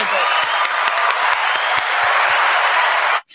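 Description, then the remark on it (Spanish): An audience applauds steadily for Yati Truck, a truck dealer: a dense wash of many hands clapping with a few sharper claps standing out, sustained and fairly loud for a few seconds before cutting off abruptly. “Y de parte tuya, me den Un aplauso para Yati Truck”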